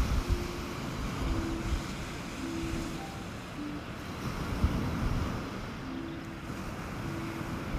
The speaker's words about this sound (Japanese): 今日はえっ、ー、と海岸まで来ています波の音が聞こえますでしょうか